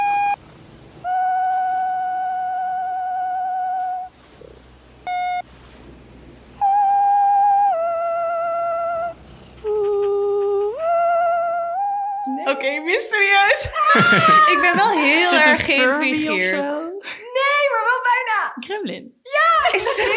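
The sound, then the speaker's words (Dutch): The cute creature voice of a Furby toy coos in long, steady, hooting notes with short pauses, then breaks into rapid, warbling chirps and babbling squeaks, fairly loud, with no one talking. “Hij is nog geen Gremlin, want hij heeft nog niet gegeten na 12.”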